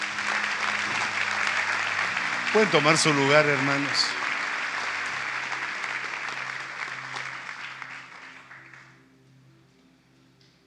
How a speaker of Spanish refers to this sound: ¿Cuántos le pueden dar una ofrenda de palmas al rey?